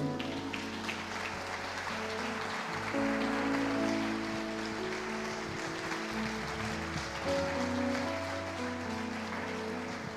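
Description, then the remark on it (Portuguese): An audience applauds to glorify God, steadily for about ten seconds, the dense, even clapping holding at a strong level, while sustained keyboard chords hum underneath. “Se você crê nisso, aplaude e glorifique a Deus.”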